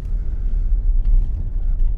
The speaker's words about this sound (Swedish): Nu sitter jag i bilen och är på väg hem. Klockan är 20 över 2.